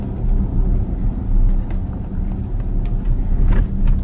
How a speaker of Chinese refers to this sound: 你看，明显走一些这种稍微不太平整的路，你会听见这个车各种各样的一些小的响声。当然，开别的车音也会有这种声音，但是明显感觉的这个质感不如陆巡来的那么稳。